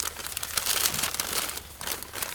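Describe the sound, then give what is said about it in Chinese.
Paper bags crinkle and rustle as small oranges on a fruit tree are wrapped in them one by one, a steady, moderately loud papery crackle with brief bursts and no talking. “这是果树上的小橘子正在一颗一颗被套进纸袋子包起来的声音。”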